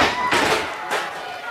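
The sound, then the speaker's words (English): A folding chair strikes a wrestler twice in quick succession, two sharp, loud metallic whacks cutting through the steady roar of an excited crowd. “Chair! Down with the chair!”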